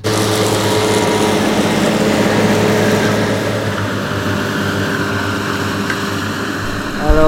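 A tractor engine drones loudly and steadily close by, a low rumbling hum with a throbbing rhythm that holds for the whole stretch, with no voices.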